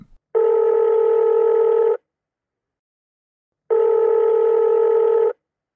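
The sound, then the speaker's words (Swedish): Two long electronic ringback tones, each about a second and a half, separated by a silent pause, like a phone ringing on the line while waiting for an answer; a call placed to climate expert Marko Rummukainen of the UN and IPCC. No one speaks. “Vi ringde helt enkelt upp Marko”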